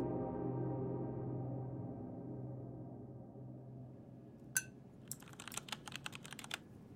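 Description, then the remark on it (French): A low hum fills the first few seconds, then a single sharp click is followed by a quick burst of keystrokes tapping out a rapid, uneven rhythm on a laptop keyboard as ByteDance founder Zhang Yiming surfs on his laptop over breakfast at home in Beijing, China, early on the morning of 7 July 2020. “Il prend son petit déjeuner tout en surfant sur son ordinateur portable.”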